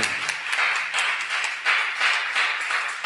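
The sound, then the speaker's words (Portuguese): Audience applause fills the moment: a dense, steady wash of many hands clapping, fairly loud and even throughout, with no voices standing out above it. “Que bom, pode aplaudir mesmo.”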